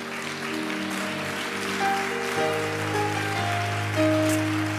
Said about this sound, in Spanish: Hay dos clases de aplauso. Están los que se dan cuando hay un buen gol y los que se dan por cortesía para que el predicador se sienta bien. Yo no sé cuál es ese aplauso de ustedes. Yo no lo pedí.